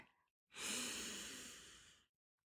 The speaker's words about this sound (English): So for all of us type A's, let's just take a deep breath so we could practice chilling. So deep breathe in